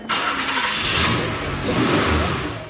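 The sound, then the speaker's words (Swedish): A car engine roars as it is revved hard, a loud, sustained rumbling drone that swells and holds for a few seconds, with no voices. “Hon bad min kusin hålla honom i en påse framför avgasröret och gasade på utav bara satan.”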